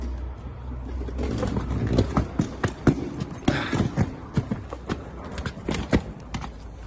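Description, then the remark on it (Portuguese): Small suitcase wheels rumble steadily over rough pavement as a person walks pulling the suitcase, clacking sharply again and again at uneven intervals as they roll across joints. The sound is fairly loud, and no one speaks. “Você, vê, você, é, você vê ali que, que, a minha preocupação, você vê que a mala, a rodinha faz muito barulho, né?”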